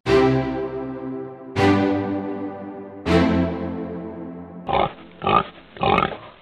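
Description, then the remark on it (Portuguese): Three quick, loud pig oinks in a row, coming right after three ringing, slowly fading musical notes. The grunts are clear, with no talking. “E o porco, tadinho, sentia muita inveja, porque ele não podia ir a lugar algum.”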